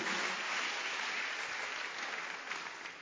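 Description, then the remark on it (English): An audience claps their hands for the Lord in a steady, dense wash of applause that holds at an even level for the full three seconds, tapering slightly toward the end, with no speech over it. “Clap your hands for the Lord and stand to your feet.”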